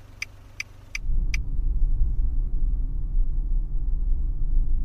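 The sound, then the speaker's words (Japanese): A few quick clicks, then a taxi's engine surges up and it pulls away at once to follow the car in front, its low rumble holding steady for several seconds with no talking. “実は私、こういうのに憧れてましたから、すぐに出します。”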